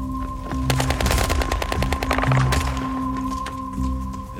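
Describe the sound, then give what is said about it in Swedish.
Machine gun fire rattles in rapid bursts during an infantry attack on a bakery building, a dense string of sharp, loud cracks in quick succession over a steady low hum, with no one speaking. “och då var det som vanligt med infanterianfall, eh, GG och så sprutor och så, så sprang vi.”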